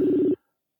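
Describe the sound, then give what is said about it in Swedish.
A single short burst of a steady, low electronic ringback tone from an outgoing phone call, heard alone and fairly loud, cutting off abruptly into silence. “ringer gör det i alla fall.”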